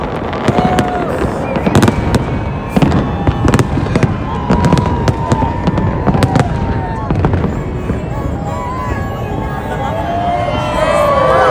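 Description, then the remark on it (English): Fireworks burst over the Las Vegas Strip in front of Planet Hollywood on New Year's Eve in a loud, continuous barrage, sharp cracks and booms overlapping above a dense, noisy crowd, with occasional whistling streaks rising through the din. “A lot of fireworks going off here.”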